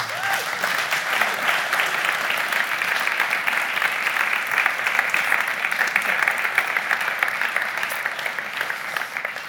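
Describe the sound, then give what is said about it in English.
An audience claps steadily for several seconds to thank a woman who has just finished speaking, a dense, sustained burst of applause that stays fairly loud and even throughout without any speech over it. “Let's thank her.”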